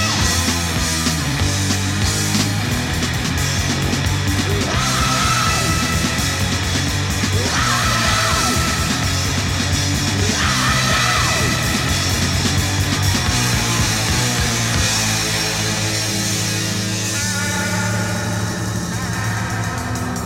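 A heavy metal song plays loudly and steadily, with dense distorted guitars, a driving low end and what sounds like a shouted, yelling vocal over the constant wall of sound.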